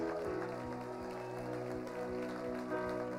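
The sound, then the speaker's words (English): A church audience claps in rhythm to give the Lord a big clap, sharp hand claps landing over loud, sustained musical chords that continue steadily throughout. “Hallelujah. Let's give the Lord a big clap.”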